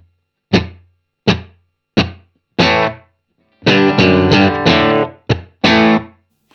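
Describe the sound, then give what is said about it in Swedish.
Heavily distorted electric guitar played through an amp pedal plays a few short, punchy chord stabs, then longer sustained chords, loud, with a touch of room ambience that comes from the pedal, no reverb, and no voices. “Det, exakt, det, det, det, rum som vi nu hör är ju från, från, eh, från pedalen. Ja. Inte, det finns inget, inget reverb.”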